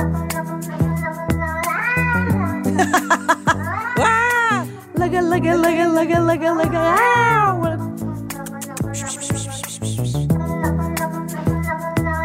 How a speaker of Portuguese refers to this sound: a canção que vos ficará na mente esta segunda-feira chama-se …, intérprete principal, um gato cinzento grande